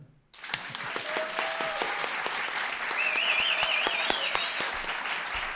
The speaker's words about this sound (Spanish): Gente, aplaudan.